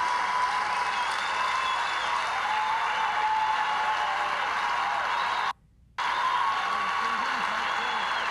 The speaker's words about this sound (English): And now listen, the applause won't stop.